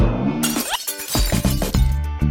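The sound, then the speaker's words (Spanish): Flowerpots knocked over and broken by Pérez the sloth break in a loud, crashing shatter, with a burst of bright noise followed by several quick rattling and clattering impacts as pieces scatter and settle. “El rebuzno fue tan fuerte que asustó a todos. Pérez, el oso perezoso, ¡ay, ay, amor mío! ¡Ay, ay, y rompió sus macetas.”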